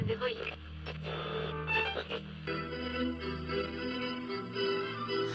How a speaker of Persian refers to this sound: اولش صدای محیط رو میشنوی صدای همهمه مردم تو مترو صدای رادیو موج اف ام توی ماشین